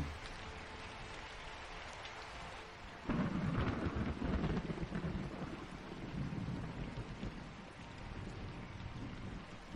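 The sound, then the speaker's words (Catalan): Heavy rain pours steadily while a deep roll of thunder breaks in around three seconds, rumbling loudly before fading back under the constant hiss of the downpour. “Encara es veuen llamps i encara es senten trons. Però la pluja va parant, poc a poc.”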